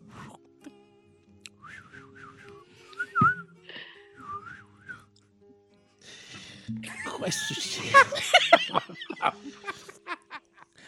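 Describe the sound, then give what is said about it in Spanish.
A person whistles a chirpy, warbling birdsong imitation in short rising and falling phrases, followed by a burst of laughter and lively voices. “Me gustaba oír el canto de los pájaros.”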